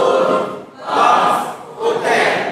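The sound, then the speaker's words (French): An audience shouts the theme together in unison on a count of 1, 2, 3, a loud, reverberant crowd chant rising in a few swelling bursts, voices blended into one booming roar. “On va le faire encore plus fort. 1, 2, 3, go.”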